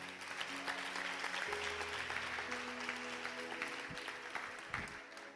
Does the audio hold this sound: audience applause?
yes